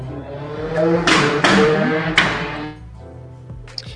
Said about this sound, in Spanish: Es la moto. Para los que no saben, las que no tengo una moto que pasa siempre en este horario y hace ese ruido. Pido disculpas.